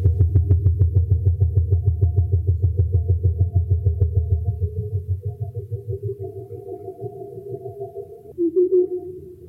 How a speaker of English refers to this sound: What you're hearing is part of a collaboration with sound art curator Andrew Spiro made for Documenta. It's called South Pacific Migration Party, and it's based on hydrophone recordings of blue whales.